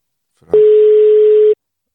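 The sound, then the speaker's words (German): A brief click, then a single steady telephone ringing tone as a call is placed on a new device to an outside correspondent, holding for about a second before cutting off cleanly, loud and alone with no voices. “Äh, es es, so, es läutet dem.”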